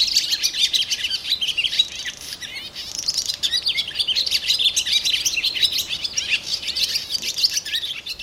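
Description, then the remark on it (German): Swallows twitter busily and continuously, a dense chorus of high, rapid chirps and trills from several birds that overlap without pause for the whole stretch, steady in loudness. “sind sogar Schwalben, nicht wahr?”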